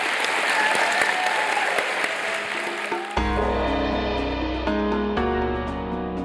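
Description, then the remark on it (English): An audience claps loudly and steadily for about three seconds, then the applause cuts off as upbeat instrumental music begins and carries on to the end. “Please welcome me in thanking Gwynne Carver.”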